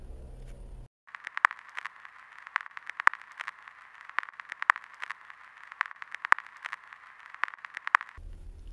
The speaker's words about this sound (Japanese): ラジオのノイズのような音が聞こえてきた。その音はどんどん大きくなっていき、変な音が混じってきた。